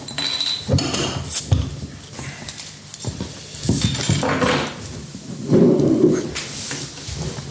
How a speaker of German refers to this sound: du weißt, Partner von Simon Life ist das Hübeli-Bier und wir dürfen heute ein Hübeli-Bier zusammen geniessen. Wir müssen das schnell auftun.